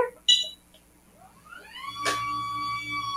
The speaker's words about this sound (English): I was in, you see my power wheelchair right here? Let me just, I know other people can't see this, but, um, I can rise my wheelchair